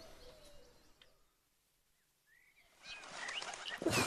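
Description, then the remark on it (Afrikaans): Soft, low cooing of doves, faint and repetitive, over a hushed outdoor background that swells into rustling noise and brief chirps near the end. “Die ewige duiwe.”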